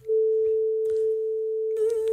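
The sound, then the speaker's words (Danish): A voice imitates the dial tone of an old-style telephone, holding one steady, mid-pitched hum for nearly two seconds without a break. It wavers briefly at the end as the breath gives out. “hyldtone, der kommer der, der øver du dig i at holde tonen, og når du kan den, så kommer du tilbage igen.”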